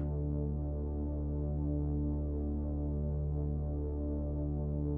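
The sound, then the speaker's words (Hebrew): Binaural beat tones for a sound meditation: a steady, low droning tone with stacked harmonic layers and a gentle pulsing throb, sustained evenly at a soft level with no voices. “Binaural Beats | מדיטציית צלילים רב ממדית | טונים בינוראלים”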